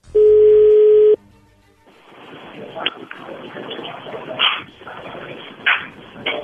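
A phone call connecting tone: one loud, steady mid-pitched beep lasting about a second, then an abrupt cut to a thin, hissy phone line with faint, muffled rustles and bumps.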